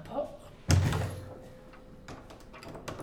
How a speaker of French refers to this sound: et je ferme à clé la porte pour qu'on ne me dérange pas.